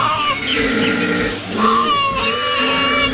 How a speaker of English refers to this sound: Is it is it, the, the like deep, the lady koala almost sounds like a bird chirping, right? The, I, yeah, and then the deeper grunt is the man.